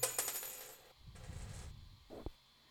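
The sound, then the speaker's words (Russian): A phone drops onto a hard surface, rattling in a quick burst of small clattering impacts, followed by a muffled shuffle and one last dull knock. No one speaks. “Телефон упал.”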